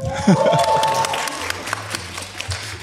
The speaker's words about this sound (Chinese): 对，哎，好，鼓掌啊！不用停，不用停啊，不用停啊。